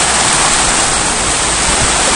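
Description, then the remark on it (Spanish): Heavy rain pours down in a city in a steady, dense roar of hiss, loud, with no pauses or distinct drops standing out across the whole stretch. “Entonces, aquí se siente el frío cuando hace frío, y llueve bien. ¡Ay, como ahorita!”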